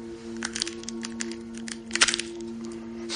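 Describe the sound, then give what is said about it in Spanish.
A young woman's hands crack nuts beside the sleeping, snoring Sherlock, producing a quick, irregular series of sharp cracks and brittle crunches over a low, steady hum, with no one speaking. “Las manos de una joven parten nueces junto a él. Con el ruido se despierta y abre los ojos sorprendido.”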